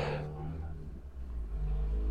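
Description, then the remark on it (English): A large moving truck rumbles past outside, its low engine drone swelling and fading with a brief rev, with no talking. “driving by again. It was the moving truck.”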